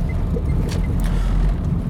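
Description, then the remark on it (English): A car turns onto the single track road for Glen Affric, with a steady low rumble of engine and tyres that holds at an even level throughout, plus a few faint higher hisses. No one speaks. “I'm just turning onto the single track road for Glen Affric.”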